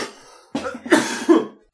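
A person coughs several times in quick succession, harsh bursts with no talking, the last one trailing off into quiet.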